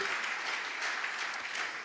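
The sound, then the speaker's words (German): An audience applauds for God steadily, a dense wash of many hands clapping at once with no individual claps standing out, holding level throughout and easing slightly at the very end. “Lass uns für das Gott einen Applaus geben, nicht für Corona, sondern über Nacht, über Nacht”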